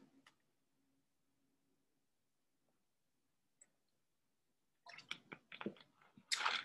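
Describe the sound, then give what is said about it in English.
Soft sipping and gulping noises of a person drinking water arrive in a quick cluster after a long quiet stretch broken only by a faint hum and a single small click. “Anyways, let me take a sip of water.”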